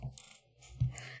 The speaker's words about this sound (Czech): počujem, jak tam do něčeho ťukáš. Neťukáš tam do něčeho? Ne, to je ta kočka.